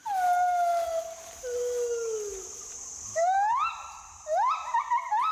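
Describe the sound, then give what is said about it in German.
A male and female gibbon pair's duet love song: long, clear hooting notes slide down, then rise into swooping whoops that quicken into a rapid, excited trill near the end, loud with no talking. “Liebeslieder. Da singen dann Männchen und Weibchen zusammen. Wie so ein Duett in der Oper.”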